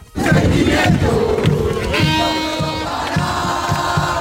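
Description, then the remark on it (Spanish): A dense crowd of Argentine football fans gathered at the Puerta de Jerez chants and cheers loudly outdoors, celebrating their team's World Cup victory, voices merging into a roar over a steady, pounding beat, with horns or whistles blaring partway through. “Pues este es el sonido de los argentinos que anoche se concentraban en la puerta de Jerez para celebrar la victoria de su equipo.”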